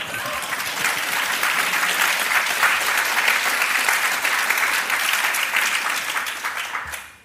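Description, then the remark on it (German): Steady, dense applause from an audience, a broad crackling wash of many hands clapping at even loudness for about seven seconds before quickly fading out at the end. “es ist ja schon das Auto angesprochen worden, wobei mir nicht ganz klar war, was ihr Klatschen gemeint hat.”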